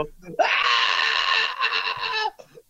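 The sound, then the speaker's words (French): A person lets out a long, loud, strained scream lasting about two seconds, an exaggerated imitation of someone shrieking for help, followed by a brief breathy tail. “Plein ah de crier, au secours.”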